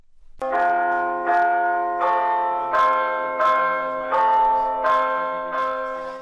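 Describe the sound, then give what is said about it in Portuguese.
The village church bell of Alvoco das Várzeas, in Oliveira do Hospital, Portugal, tolls the hour on its own at the Igreja Matriz, dedicated to Santo André, at a steady, unhurried pace, each strike loud and resonant with a long humming decay overlapping the next. No voices are heard. “O sino da aldeia de Alvoco das Várzeas, no Conselho de Oliveira do Hospital, toca sozinho a cada hora na Igreja Matriz, dedicada a Santo André, padroeiro.”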